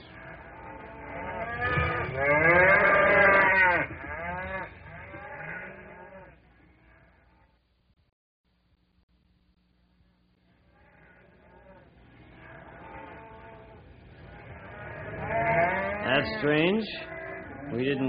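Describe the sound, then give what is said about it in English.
Agitated, spooked cattle in a corral low and bellow loudly, several overlapping calls, then a stretch of near silence before the restless mooing swells up again. “Yeah, uh, let's take a gander and see what's spooking these critters.”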